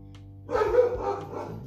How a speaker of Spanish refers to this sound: Es que es el, perro. Es que es el perro. Echémosle la culpa al perro.